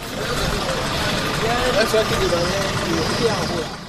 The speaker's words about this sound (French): Ce lundi, au parc de Djevali à Porto Novo, nous apercevons une voiture de 5 places se garant sur le parking avec à bord 3 passagers et une quantité importante de bananes dans le coffre et sur le porte-bagages de la voiture.